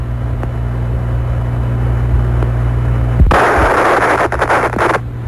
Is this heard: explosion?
yes